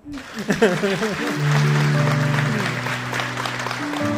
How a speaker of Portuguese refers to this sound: Pode ser um homem esse pastor? Jamais, aplauda o Senhor.